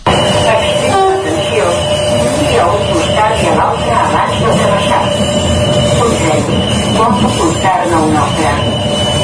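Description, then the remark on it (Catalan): A voice over a train's public address system announces the next stop in Spanish through the steady, loud rumble of a moving carriage, sounding slightly distorted and echoey against the constant rolling noise. “Doncs escoltem aquest àudio que has gravat, a veure què tal se sent la megafonia.”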